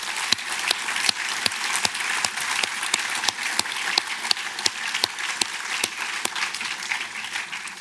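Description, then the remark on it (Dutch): Steady audience applause for an audience member's question fills the whole stretch, a dense patter of many hands clapping at a fairly loud, even level with sharp individual claps popping out now and then. “Dat is ook een applaus voor jouw vraag”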